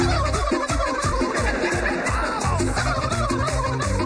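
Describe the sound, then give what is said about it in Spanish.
Loud, rapid turkey gobbling fills the whole stretch, a dense run of warbling, bubbling calls repeating in quick bursts with no pauses, set against a busy, steady background. “Además, haciendo imagínense uno a las 2 de la mañana, uno haciendo como un pavo en la casa y, y el vigilante llamando que por favor le bajen.”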